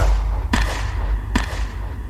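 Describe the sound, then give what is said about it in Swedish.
Two sharp AK5 automatic rifle shots crack out almost a second apart on a summer night in wartime Yugoslavia, set against a steady low rumble, with no voices present. “identifierar vapnet som en AK5.”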